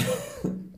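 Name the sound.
sneeze or cough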